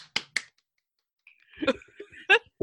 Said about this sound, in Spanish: Paparrucha fue la elegida con votación no unánime. ¡Aplausos!